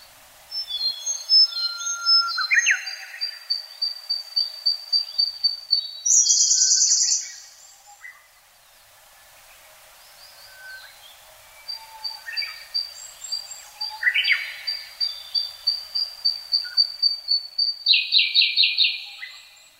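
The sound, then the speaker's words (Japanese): A dawn chorus of mountain birds before daybreak on the Kirifuri Highland in Japan, recorded in 2010: several birds sing at once with rapid repeated notes and bright high trills, clear, pausing briefly midway before the singing swells again. No voices. “日本国中にとどまらず、広く海外に迄音源を求めて収録した鳥の声をご紹介しています”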